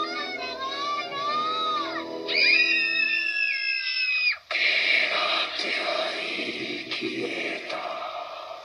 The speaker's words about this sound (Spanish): Ya estos niños jugando con sus bromas, que se callen, por favor.